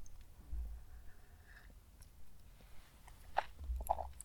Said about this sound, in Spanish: Pausa para trago el café.